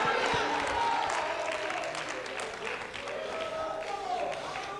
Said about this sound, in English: Clap your hand and shout hallelujah. Clap your hand and shout hallelujah.